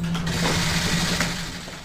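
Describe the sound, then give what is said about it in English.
Many camera shutters click rapidly and overlap into a dense, continuous mechanical chatter at a military photo op during President Mayhem's trip to Walter Reed Medical Center, fairly loud, with a steady low hum underneath and no voices. “And you can hear tons of cameras clicking because, of course, it's a military photo op again, and he actually wore a mask.”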